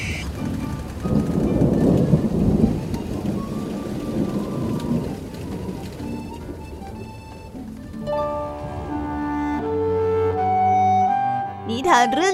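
A loud thunderstorm, with heavy rain and deep rumbling thunder filling the first several seconds, then giving way to sustained musical tones that carry on to the end.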